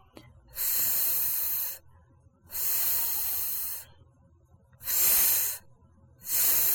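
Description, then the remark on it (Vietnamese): Four bursts of breathy hissing, each lasting about a second with short silent gaps, made by blowing air out through a small gap between the tongue and teeth, with the teeth resting very lightly on the tongue, as for the sound in the English word 'think'. No other sounds or talking. “Mình chỉ để rất rất là hờ nghe các bạn và mình sẽ có một cái khoảng không nho nhỏ nữa để giữa khoảng cách giữa răng và giữa lưỡi một chút xíu thôi từ đó mình thổi hơi ra”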